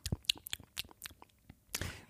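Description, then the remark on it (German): Wet chewing and lip smacking while eating, a quick series of irregular crunchy, clicky mouth sounds over about two seconds, with no talking. “Also Schmatzerei im Prinzip.”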